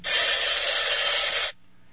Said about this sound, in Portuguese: O telefone toca.